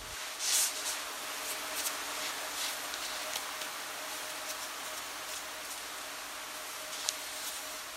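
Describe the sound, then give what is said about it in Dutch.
Quiet classroom ambience of about seven people communicating in sign language: a steady soft hiss and faint rustling of movement, a few light taps and brushes scattered throughout, and no one speaking. “Maar dit is het geluid in een klaslokaal, gebarentaal.”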